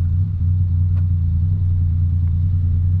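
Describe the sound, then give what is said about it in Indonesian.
A motorcycle engine rumbles beside the speaker at a red light on a street at 8:17 pm, a loud, steady low drone that holds for the whole stretch with only slight swells, as if idling and lightly revving while waiting. “sekarang saya ada di jalan tepatnya jam 20.17 nih kebetulan lampu merah dan sebelah ada motor semoga nggak ganggu ya atau nanti kita nunggu dia lewat aja nih motor berisik”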